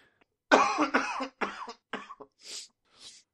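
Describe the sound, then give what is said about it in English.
A burst of several harsh coughs in quick succession, followed by a couple of softer, breathy throat-clearing coughs, moderately loud and slightly distant, made far away from the microphone, with no talking. “Man, I was so far away from the microphone, you could still hear that.”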